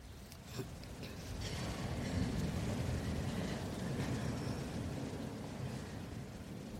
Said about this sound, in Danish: Sommeren er forbi, og regn og rusk varsler efterårets komme.